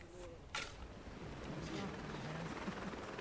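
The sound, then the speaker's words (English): A medevac rescue helicopter's rotor blades churn in a steady, loud, windy roar as it comes in to an awkward landing zone to pick up a patient, with a sharp burst near the start and faint voices murmuring beneath the noise. “The rotor blades reawaken Vietnam memories.”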